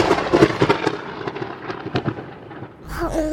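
A loud crack of thunder after a lightning strike breaks into a series of crackling bursts, then fades into a deeper rumble that swells again near the end.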